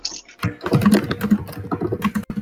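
Rapid, forceful keyboard typing, a dense run of hard clacking keystrokes close to the microphone with no voices, continuing steadily for a couple of seconds.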